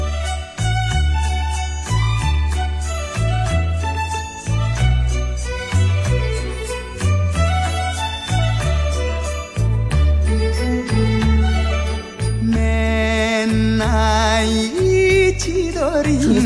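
A Japanese enka song plays loudly and continuously, with a steady thumping bass rhythm under a bright melodic line that swells into a wavering, vibrato-laden phrase near the end.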